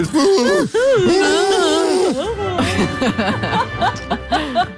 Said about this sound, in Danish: altså, jeg var ved at gabe.